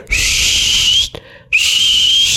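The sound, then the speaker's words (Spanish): Two long, shrill whistle blasts, loud, the kind of piercing whistle an audience member uses to heckle a stand-up comedian off stage, separated by a brief pause, with no voices. “que una persona me empezó a chiflar así.”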